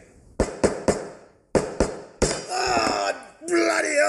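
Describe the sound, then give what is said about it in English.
Six sharp hammer blows on wood, struck in two quick bursts of three while a wooden cubby house is being knocked together in a back shed, followed by a man's loud, strained cry of pain. “I'm just up the back shed knocking together a cubby house for one of the grandkids for their birthday.”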